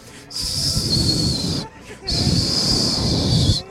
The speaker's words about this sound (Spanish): Eso es lo más lejos que puedo llegar a un chiflido.